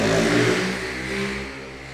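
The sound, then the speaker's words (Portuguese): A motorcycle engine revs loudly, a steady throaty roar that eases off slightly as it moves past. No one speaks. “passar uma moto e fazer barulho aí, vocês não fiquem bravos.”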